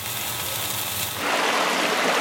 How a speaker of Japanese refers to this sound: あなたもこんな音で癒されてみませんかステーキを焼く音